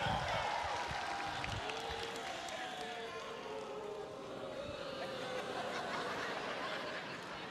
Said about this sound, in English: I got fans. I need my fans to start clapping. Okay, keep clapping.